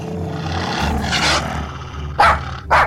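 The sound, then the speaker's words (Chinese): A hunting dog barks and growls to scare off a coyote at a tent, a rough, sustained snarl in the middle followed by two sharp, loud barks near the end, with a low rumbling underneath and no talking. “他立刻大叫起来，想吓跑郊狼。”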